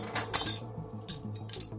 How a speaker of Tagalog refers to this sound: Nanginginig ang mga kamay niya habang bitbit ang bote ng red wine at platito ng cake. Dahan niyang nilapag ang mga hawak niya sa lamesa.